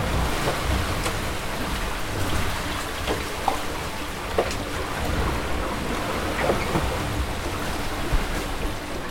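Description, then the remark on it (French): Water rushes and swishes steadily along the hull of a heeling sailboat under sail with its engine off, heading for Wayag at about 6 knots, with a constant blustery wind roaring underneath and occasional small splashes and slaps. “Les seuls bruits à présent sont l'eau glissant contre la coque et le vent dans mes oreilles.”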